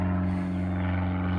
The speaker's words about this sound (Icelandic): og nú flýgur einhver